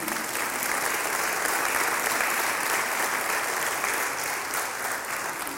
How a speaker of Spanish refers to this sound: ¿Nos damos un aplauso? ¿Sí?